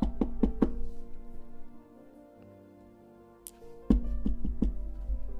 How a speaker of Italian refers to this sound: Andiamo allora, bussiamo porta. Quella, quella, eh, quell'altra. Sì, Eh, mi pare quella. Eh, se è quell'altra? Eh, proviamo anche l'altra dopo. Ok, bussa, bussa, donna.